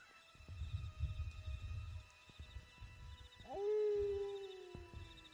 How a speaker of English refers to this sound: begin to hear howls surrounding you, and you see them slowly making their way into the road from different places.